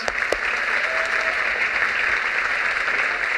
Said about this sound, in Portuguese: Vamos tomar uma salva de palmas.